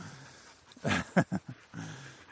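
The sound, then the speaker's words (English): A dog, Huey, growls and grumbles in a few short, rough bursts, with a low steady rumble before and after and no one talking. “the Huey's so vocal that, or Missy's so vocal that Huey starts growling because he feels left out.”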